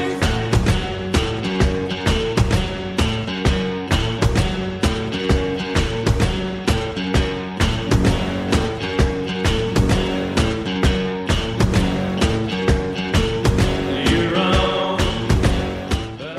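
A synth-rock pop song plays loudly and steadily, driven by a punchy, regular beat under layered electronic and guitar-like tones, with no talking over it.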